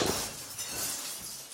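Glass dishes clatter and shatter in a house kitchen shortly after three in the morning, a loud, continuous burst of bright crashing and tinkling that lasts a moment and then settles, with no voices present.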